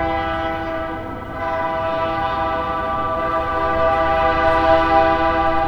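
A train rolls along steel rails with a steady low rumble and a sustained, ringing metallic tone of layered pitches that grows slightly louder toward the end. No one speaks.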